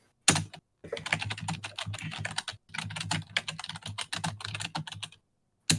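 Rapid, steady typing on a computer keyboard, fairly loud, with dense key clicks broken by a couple of brief pauses. No one speaks.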